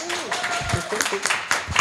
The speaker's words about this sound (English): Big round of applause.